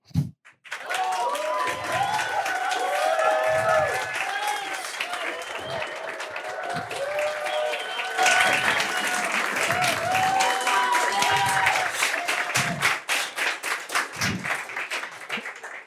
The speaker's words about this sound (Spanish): ¿Quién no aplaude? A ver, ¿quién no aplaudió ahorita?